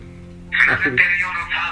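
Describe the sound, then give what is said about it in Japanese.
A phone rings for an incoming call with a bright, warbling electronic ringtone that starts after a short pause and pulses in repeated bursts, fairly loud over a low steady hum. “電話がかかってきますあ電話かかってきたで”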